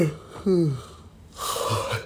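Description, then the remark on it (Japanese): A single yawn: a drawn-out voiced sigh that slides downward in pitch, followed by a long, breathy exhale. It is moderately loud, with no talking over it. “すいませんね、あくびがね。”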